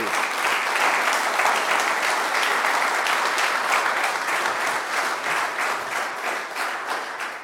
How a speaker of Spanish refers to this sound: Dele palmas al rey.